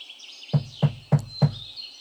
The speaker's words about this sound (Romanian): În ăst timp, însă, lupul porni de-a dreptul spre casa bunicii și bătu la ușă.